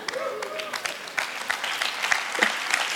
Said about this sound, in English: Oh, that's good. Got a clap, that's nice.